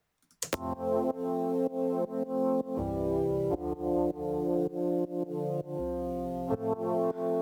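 A DX7 synth plays sustained chords that pump rhythmically in volume from sidechain compression keyed from the kick drum, with heavy filtering or EQ darkening the top end and Waves Reel ADT adding stereo spread. The chords shift every couple of seconds, alone with no voices.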